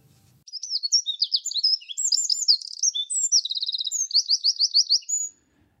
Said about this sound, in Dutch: om te luisteren naar zijn verhaal achter het geluid van de winterkoning.